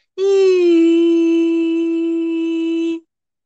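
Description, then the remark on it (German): A voice imitates a humming noise that sounds like a child humming, holding one steady, fairly high-pitched hum for about three seconds, loud, before cutting off abruptly. “Aber das hört sich wie an wie so ein Kind, das summt.”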